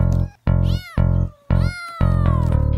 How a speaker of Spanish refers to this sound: Gatitos, muchos michis.